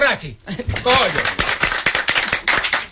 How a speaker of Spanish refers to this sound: Aplaudimos todos.